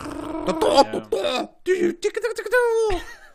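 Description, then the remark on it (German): A person vocally imitates a dial-up modem connection handshake with a rapid run of squeaks, buzzes and sputters, ending in a long steady nasal tone, fairly loud. “Äh, nicht, nicht DSL, äh, dieses Modem, dieses ISDN oder sowas das so ganz komische.”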